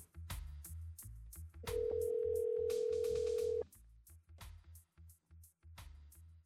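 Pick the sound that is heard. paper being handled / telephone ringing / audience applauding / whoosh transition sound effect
telephone ringing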